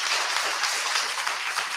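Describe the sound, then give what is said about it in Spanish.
An audience in Mieres applauds the woman honoured as the matriarch of the town's folklore, with dense, steady clapping that keeps up for the whole moment. The crackling, evenly loud texture has no voices over it. “Un aplauso para la matriarca del folclore de Mieres.”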